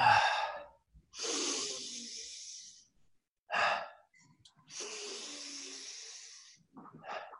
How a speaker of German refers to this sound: Das machen wir 30 bis 40 Mal oder man kann auch sagen zwei Minuten. Dann atmen wir ganz normal aus. Also es ist auch bei der ersten Phase 30 bis 40 Mal tief einatmen und normal ausatmen.